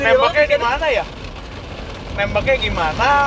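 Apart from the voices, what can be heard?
heavy rain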